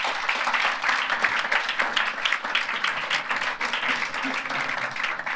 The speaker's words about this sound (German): Gebt Ihnen einen schönen Applaus.